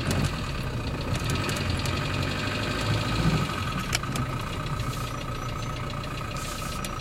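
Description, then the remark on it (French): A night taxi's engine idles steadily for several seconds as the ride sets off for Saint-Jacques after rain has eased, a continuous low rumble with a faint knocking texture and a constant hiss above it, with no voices. “On va, Jean, taxi de nuit.”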